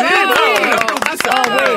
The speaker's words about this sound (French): Ça faisait longtemps qu'on n'avait pas applaudi quelqu'un.